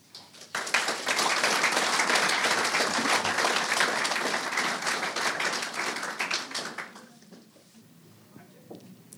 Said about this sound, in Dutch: Ik vind dat een mooi einde. Eh, voor dit deel. Ehm, eh, graag nog een hartelijk applaus